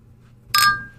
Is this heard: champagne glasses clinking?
yes